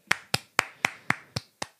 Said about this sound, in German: Applaus, großer Applaus von mir.